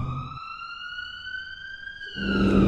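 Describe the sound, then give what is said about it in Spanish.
An ambulance siren holds a steady, piercing wail as the ambulance speeds off, its pitch dipping slightly near the end as it pulls away, over a low rumble of engine noise. “La suben a la ambulancia y arrancan a toda velocidad.”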